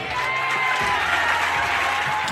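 A crowd of prison visitors applauding steadily in a dense wash of clapping, with some scattered voices shouting for bread mixed in throughout; the sound is fairly loud and continuous for the whole short stretch.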